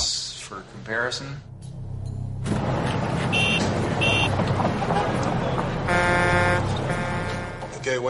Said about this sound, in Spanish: El otro sonido es simplemente ruido de tráfico. Estamos listos para reproducir los sonidos. Primero el de Stonehenge. Ahora el ruido de tráfico para compararlo.